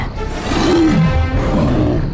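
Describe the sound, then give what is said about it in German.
A huge red dragon roaring: a deep, loud, rumbling roar that swells and holds for about two seconds, with a growling low end and rising tonal snarls, alone with no talking. “Der Drache brüllte und öffnete den Mund weit genug, um ein Gebiss mit messerscharfen, langen Zähnen zu zeigen und blies eine riesige, todbringende Feuerfontäne aus.”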